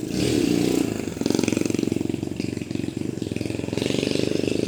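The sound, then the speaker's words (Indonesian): A motorcycle engine putters past, its steady rattling pulse filling the whole few seconds with a slight rise and fall as it goes by. “oh, ada motor lewat nih.”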